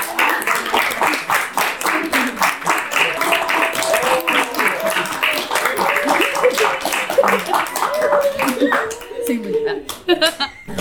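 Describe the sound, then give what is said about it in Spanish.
An audience breaks into sustained applause, a dense, steady patter of many hands clapping for about ten seconds, with voices calling out underneath before the clapping thins out at the end. “Entonces, muchísimas gracias por acompañarnos y por favor un aplauso para”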